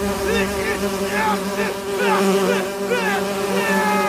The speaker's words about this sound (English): However, his beam did not work as planned, and the psionically simulated bees, instead of falling under his control, attacked it.